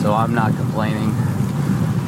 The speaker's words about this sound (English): You can probably hear that wind going dead into a headwind right now, but it's almost 90 degrees and a little breeze feels nice.